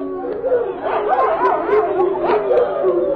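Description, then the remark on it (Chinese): Dogs bark and yelp at yak-hair tents on a grassland in a steady, overlapping flurry, their calls rising and falling in pitch like excited yowls, fairly loud and continuous for about three seconds with no talking; a big date-red male mastiff comes running. “立刻传来一阵狗叫声，一只浑身枣红的魁梧公獒轰隆轰隆的地动山摇的跑了过来。”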